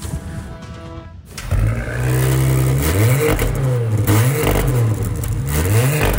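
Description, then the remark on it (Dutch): A Porsche engine cranks over with a brief starter clatter, catches with a loud roar, then is revved up and down several times, with no one speaking. “Dan, doe jij er ook even het motortje starten? Dan doe ik maar even starten ertussen.”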